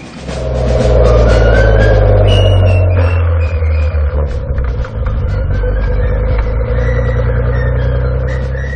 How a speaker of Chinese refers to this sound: 它就会很奇怪，它那种声音就很像是只有发动机在不停的转，但是排气管呢，它是没有任何声音发出来的。这种感觉又再次回到那种中大型豪华房车的那种级别，这实在是太安静了。